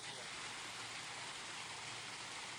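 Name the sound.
rain falling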